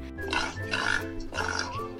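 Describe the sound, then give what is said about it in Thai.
A pig oinks three times in quick succession, loud, each grunting squeal rising and falling in a steady rhythm with no other sounds around it. “พวกชาวยุโรปเหล่านี้ พาสัตว์เลี้ยงเข้ามาในเกาะนิวซีแลนด์ด้วย เช่น กระต่ายนักขุด หมานักดมกลิ่น แมวนักล่า หมูนักกิน”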